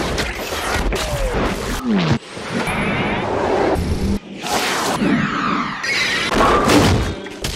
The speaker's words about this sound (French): Ce sont des bruitages extraits de ces films, des bruits de chaînes, de sabres, des bruits organiques, des bruits de sang, de flammes, de coups de feu, d'explosions, bref, les bruits des gros plans des films de Quentin Tarantino.